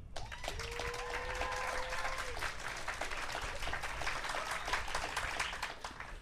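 Sustained applause from an audience voting for a contestant in a final tie-break round fills the whole stretch, a dense steady patter of clapping with a few cheers. A short whistled or sung tone rises briefly over it near the start.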